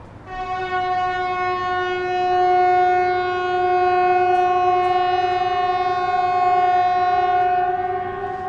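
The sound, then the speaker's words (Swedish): An air raid warning siren blares in one loud, steady, unwavering tone, holding the same pitch without rising or falling for the entire stretch, with no voices over it. “Precis, det beryktade flyglarmet som, eh, eh, som helt enkelt ljuder, nu, nu för tiden bara måndagar, men eh, annars så var det tänkt att vara både om vi blir invaderade eller om det blir någon slags gasläcka och så vidare också tror jag.”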